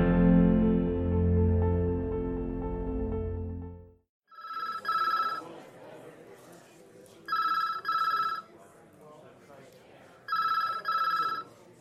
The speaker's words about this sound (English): The phone rings yet again in the busy precinct.